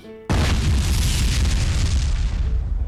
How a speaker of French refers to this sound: ce bruit que vous venez d'entendre, c'est le Big Bang. Oui, le fameux, l'unique, le seul Big Bang.